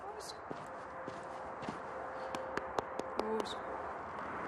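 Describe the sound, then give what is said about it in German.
A three-year-old mare walks slowly as she is being accustomed to a rider's weight during training. Her hooves clip-clop in a loose, uneven rhythm of a dozen or so steps, over a steady background hiss with faint murmuring voices. “gewöhnt Stute Chili langsam ans Reitergewicht”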